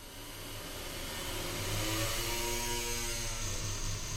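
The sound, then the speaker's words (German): A continuous, grainy, soft creaking from the modified violin of Philipp Reis's early telephone, with a buzzing, ratchet-like texture and faint tonal streaks that swell slightly midway. No voices are heard. “Zartes Knarren hallt aus der umgebauten Geige, dann eine Stimme, leise und zerhackt.”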